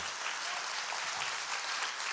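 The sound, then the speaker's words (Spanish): An audience applauds to the glory of God at a morning church service, many hands clapping in a dense, steady wash of sound that holds at an even level throughout, with no voices standing out. “Dale ese aplauso a la gloria de Dios en esta mañana.”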